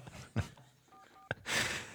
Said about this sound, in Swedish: Ja, men jag testar att ringa upp här nu då.